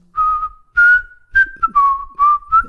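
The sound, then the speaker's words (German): Someone whistles a short song melody, a wavering melody of several sustained notes with breathy bursts between them, slightly unsteady in pitch. “ich kann nicht pfeifen, ist egal.”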